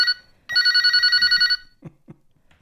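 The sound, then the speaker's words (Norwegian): A telephone bell rings loudly, first a short burst then a longer rapid trilling ring lasting about a second, followed by a few soft thuds and faint voice sounds. “Jeg tror telefonen din ringer igjen.”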